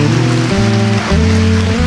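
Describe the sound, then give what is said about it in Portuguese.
A Catholic church audience applauding in a dense, steady wash of clapping that holds loud throughout, with sustained low keyboard chords shifting underneath and no voices. “E aplauda a tua igreja católica, apostólica romana.”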